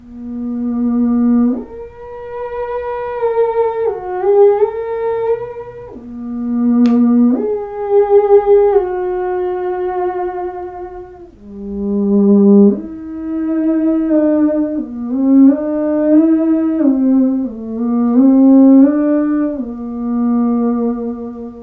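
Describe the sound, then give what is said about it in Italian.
A theremin, played by theremin virtuoso Carolina Eich, plays a slow, familiar-sounding melody on its own, with long sustained notes that slide smoothly between pitches and waver with gentle vibrato, loud. “questo suono che avete sentito, molto bizzarro, è il suono che produce lo strumento denominato Theremin”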